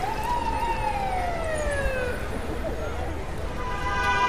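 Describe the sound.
A police siren wails in long descending sweeps over a steady rumble of traffic, fairly loud, with faint voices mixed into the street noise.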